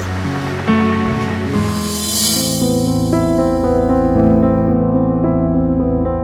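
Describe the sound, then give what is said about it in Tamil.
A broad wash of ocean waves in the middle of the sea, on a voyage aboard a big ship, swells and fades over the first few seconds, blending into sustained, steady musical tones that continue to the end. “நடு கடல்ல பயணிக்க போறோம் பெரிய கப்பல்ல நீளம் தவிர வேற எதுவும் கண்ணில் தெரியாத மாதிரியான ஒரு உலகத்தை மனத்திரையில ஓட விட்டுட்டு அப்படியே கேளுங்க”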